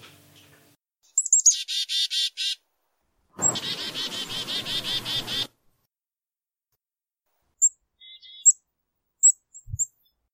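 Rapid, squeaky bird alarm calls ring out in two energetic bursts, high-pitched and insistent, followed by a few scattered sharp whistles and chirps near the end.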